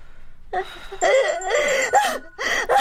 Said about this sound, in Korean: 어, 자, 잠깐만요. 저 전화 좀 받고 올게요.